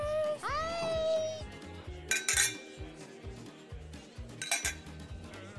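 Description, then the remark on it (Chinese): Ambience of a bar in Hawaii, USA, with glasses and dishes clinking, two bright bursts of clattering over a steady, rhythmic low murmur, opened by a short rising tonal whoop. “喵喵，这里是美国的酒吧。你们仔细听喽！”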